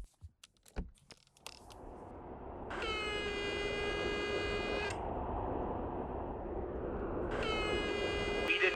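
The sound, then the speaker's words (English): A gate intercom buzzer, pressed by a visitor at the gate, sounds twice, each a harsh, steady electronic drone lasting about two seconds, over a constant low rumble, after some brief clicks and rattles at the start. “All right, I'm at the gate right now. I'm just going to buzz him.”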